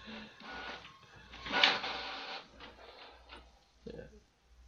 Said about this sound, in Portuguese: minha mãe resolveu imprimir o um negócio agora, vai fazer um barulho do caralho aqui.